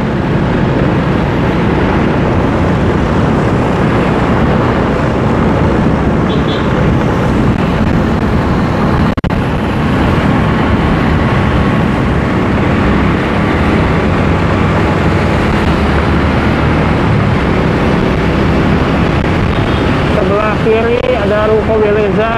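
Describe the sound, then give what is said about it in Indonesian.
Busy road traffic beside ITC Permata Hijau rumbles steadily and continuously, a dense roar of passing vehicles, dense but still flowing, with wind-like noise and a brief wavering tone rising near the end. “sebelah kanan ITC Permata Hijau saat ini belum terlalu ramai sih lalu lintas masih lancar padat tapi lancar”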